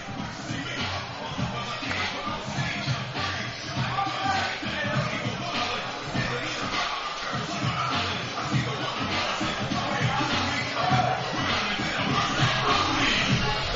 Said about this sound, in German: Applaus für den Cowboys.